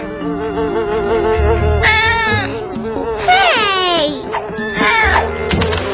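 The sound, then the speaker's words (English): A cat, Gilbert, meows loudly three times in a row while someone tries to photograph it with a camera. The meows are drawn-out and wailing with bending pitch, over a low background hum. “Cats are pretty tricky to photograph.”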